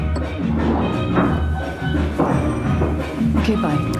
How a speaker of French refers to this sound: La musique, le bruit d'un marteau, quelques mots de conversation, puis les pas de Sandra dans l'escalier de bois.